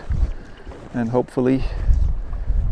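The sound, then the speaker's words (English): Heavy wind buffets the microphone outdoors on a beach where a man is casting a fishing line, a constant low, gusty rumble that swells and thumps throughout, with the man speaking briefly over it. “on this podcast you will have quite a bit of noise from the wind”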